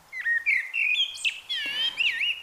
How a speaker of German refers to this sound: Was man hier hört, ist ein Amsle. Sie pfeift im Frühling schon ganz früh am Morgen und macht im Morgenstreich durchaus Konkurrenz.